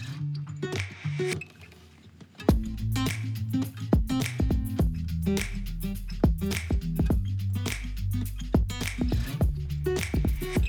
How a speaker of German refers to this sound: Deswegen auch nicht wundern, es klingt dann auch gleich wie in der Halle.